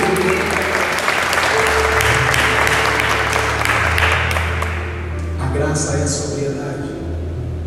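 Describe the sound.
An audience at a church sermon applauds steadily to give glory to God and applaud his presence, a dense clatter of many hands over a low sustained instrumental hum and mixed voices, thinning slightly toward the end.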